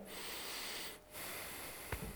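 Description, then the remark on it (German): A person draws a long, deep breath in through the nose, a sustained airy rush, briefly pausing before another steady inhale; no one speaks. “Du atmest ein”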